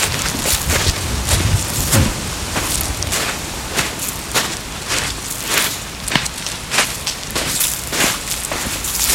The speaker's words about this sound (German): wir hören mal Max seine Schritte